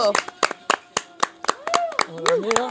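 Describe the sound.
Hands clap in a quick, uneven burst of applause from a small group nearby, with sharp repeated slaps over a couple of seconds while a few voices talk and call out underneath.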